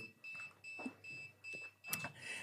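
A drone beeping: a steady run of about five high electronic beeps in a regular rhythm, each lasting a fraction of a second, fairly loud with no talking over them.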